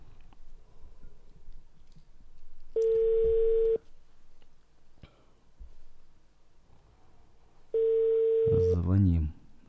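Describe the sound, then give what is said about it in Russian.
A telephone ringback tone as a studio on air places a call to a professional psychologist: two steady, mid-pitched beeps about a second long each, separated by a pause of several seconds, over a quiet low hum. The second beep ends in a brief burst of noise. “Звоним, звоним, звоним. Ждем”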